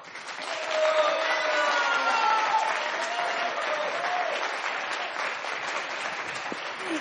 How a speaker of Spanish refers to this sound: Así que si asistieron hoy, su aplauso podrá escucharse en el futuro. Recibamos entonces en este escenario a nuestras y nuestros invitados.